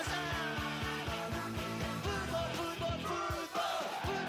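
A loud football stadium crowd in the stands chants "Portero, portero, portero" (goalkeeper) and yells together in a steady rhythmic cadence, with many voices blending into a dense roar that fills the space throughout.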